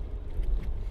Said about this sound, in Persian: این رو از تکونهای شدید و صدای خفیف اتومبیل که از بیرون میاد میفهمی